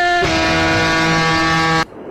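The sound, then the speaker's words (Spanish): A loud, steady horn blast holds one bright, buzzy chord-like tone for about a second and a half, then cuts off abruptly. No one speaks over it. “Bocina para el sábado. ¿Dónde conseguimos una como esa, como la tuya? Mira, como esta.”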